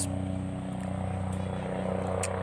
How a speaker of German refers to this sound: Ähm, fliegt die ganze Zeit ein Hubschrauber lang.